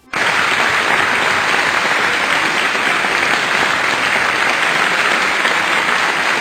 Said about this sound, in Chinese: 亲爱的小伙伴们，亲爱的听众朋友们，请赶紧伸出你们的双手，为我们想象力如此丰富的孩子们鼓掌吧！